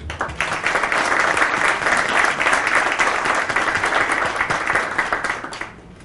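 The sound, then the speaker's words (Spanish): A sustained round of audience applause welcoming a guest at a tribunal's ceremony for presenting diplomas to its staff. The clapping is dense and steady, holding for several seconds before thinning out and tapering off at the end. “bienvenida a tu casa y le damos la bienvenida con un gran aplauso.”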